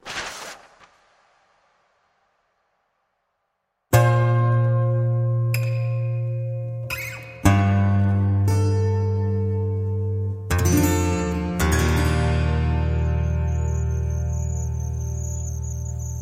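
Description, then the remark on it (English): Singer-songwriter and actor Casey Donovan uses only her voice to imitate the sounds of the Australian bush, with sustained, buzzing, insect-like tones and calls in several loud bursts, following a brief sound and a few seconds of silence. “Creating the cacophony of sounds of the Australian bush with just her voice is singer songwriter and actor Casey Donovan, narrating The Missing Package,”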